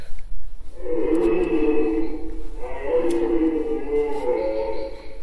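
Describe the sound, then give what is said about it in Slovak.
A red deer stag roars during the rut, the mating season, two long, deep, drawn-out bellows in close succession, loud, over a steady low background hum; the sound is played back at a diorama. “Toto je vlastne zvuk jelenia lesného počas ruje teda počas obdobia párenia.”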